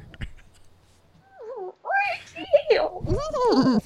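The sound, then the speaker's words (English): A person does a vocal impression of a horse: a wavering, quavering whinny that rises and falls, growing louder and more strained over a few seconds, after a brief quiet start. “Barely a dolphin sound. Making horse sounds.”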